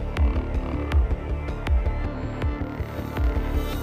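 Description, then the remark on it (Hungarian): A heavy, boosted sub-bass drone hums low and steady, throbbing in rhythmic pulses with sharp clicks recurring about every half second. No one speaks over it. “De ilyen, ilyen brum, brummog. Tehát, brummog, igen.”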